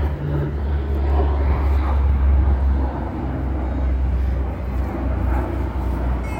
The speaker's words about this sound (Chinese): 等一下飞机。